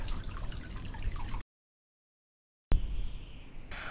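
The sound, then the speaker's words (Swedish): Rising water drips and gurgles steadily in a cave, a busy trickling texture broken by a sudden silent gap before the watery sound resumes. “Shit! Vattnet stiger!”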